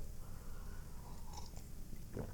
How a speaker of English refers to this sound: Well, I take another sip of coffee.